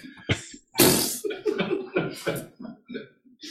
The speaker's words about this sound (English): That sneeze. You should just let it all blow out all over everybody.